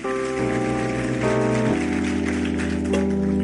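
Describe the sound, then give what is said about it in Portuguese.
A standing audience applauds God during a Portuguese-language church service in a steady, dense patter of clapping, layered over sustained keyboard chords that shift every second or so, without any speech. “Aplauda Ele, vamos ficar em pé.”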